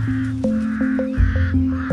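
A crow caws harshly about five times in a quick, steady rhythm, loud, over a sustained low musical drone.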